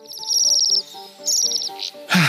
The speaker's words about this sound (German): Okay, ich würde sagen, wir lassen den Seidenschwanz mal unsere Folge ausklingen.